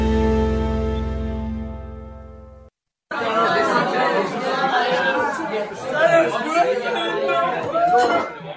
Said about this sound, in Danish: Det er lyden af vores julefrokost, eller det er de lyde, jeg hørte, inden jeg gik hjem, fordi jeg drak ikke noget.